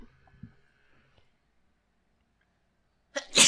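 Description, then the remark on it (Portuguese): A single sharp, loud sneeze from a woman with allergies bursts out near the end, preceded by a few seconds of near silence with faint breathy sounds at the start. “Ai, vou espirrar, peraí.”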